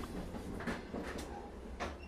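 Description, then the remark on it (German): A train roars past, its steady low rumble broken by rhythmic rattling clatters of wheels on the track, loud and continuous with no voices. “Der Zug rauscht bedrohlich an ihnen vorbei.”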